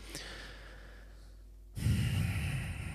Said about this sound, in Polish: zamknąłem oczy, wezmę głęboki oddech, żeby się też uspokoić, zen wprowadzić, żeby teraz powiedzieć.